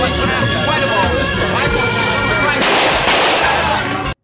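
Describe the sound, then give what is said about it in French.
Loud gunfire from a film scene with actors Gilles Pelletier and Yvon Barrette: shots and booming blasts pile up into a dense, continuous roar for about four seconds, growing harsher partway through before cutting off abruptly. “Alors, ça se tirait dessus.”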